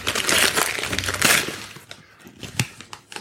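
The wrapping paper of a Christmas gift, which turns out to be Windows Vista, rips and crinkles loudly for about a second and a half, then quieter rustles and a few sharp crackles follow as the tearing winds down.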